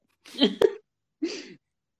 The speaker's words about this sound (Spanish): No, estaba tosiendo, perdón.